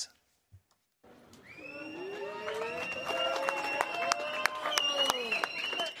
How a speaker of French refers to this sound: C'est sous les applaudissements de ses soutiens que le père de la petite fille agressée est sorti du tribunal, un soulagement pour son avocat.